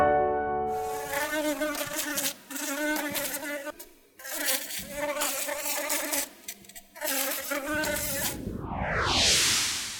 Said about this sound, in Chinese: 哦，这是蜜蜂嗡嗡嗡的声音。